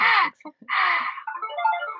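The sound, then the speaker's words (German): A phone ringtone plays at moderate volume, a short electronic melody heard in a few bursts, with some vocal sounds mixed in around it. “Mein Telefon läutet eigentlich nie, aber jetzt läutet es gerade, aber hört gleich wieder auf.”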